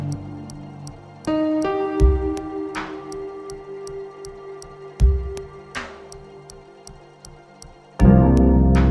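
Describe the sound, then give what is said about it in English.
A clock ticks at a steady, brisk rhythm throughout, layered over music with deep thumping hits and bright, shimmering swells. No one speaks. “The clock sometimes seems to hold a second”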